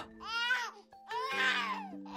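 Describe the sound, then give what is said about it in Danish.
A baby cries in two drawn-out wails with a short break between them, fairly loud, with a steady low hum underneath. “Nu er der vist en baby, der kalder på mig.”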